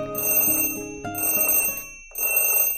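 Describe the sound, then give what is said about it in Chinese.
An alarm clock rings in three loud bursts of bright, metallic jangling, with a short break before the last burst. No voices are heard. “闹钟响了，但是大老鼠和小老鼠谁也没有听见，因为他们都睡得太香了。”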